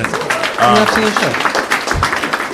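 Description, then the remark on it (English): An audience bursts into steady, dense applause at the mention of the movie The Nines, filling the whole moment, with a few voices briefly calling out over the clapping near the start. “Only, you should applaud for that.”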